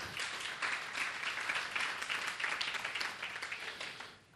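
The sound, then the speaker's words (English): An audience claps steadily for about four seconds, a dense crackling wash of many hands at fairly strong volume, then it tapers off and fades out at the end. “Yes, that is worth clapping for.”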